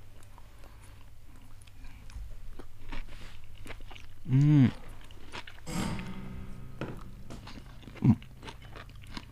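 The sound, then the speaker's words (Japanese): Biting and chewing of a whole wild vegetable stalk, eaten whole in the Nishiwaga way, with soft moist crunches clustered mid-clip, while a voice gives a couple of short murmurs over a quiet background. “いただきますいただきますやっぱりこの一本丸ごとっていうのが西和賀の食べ方ですから”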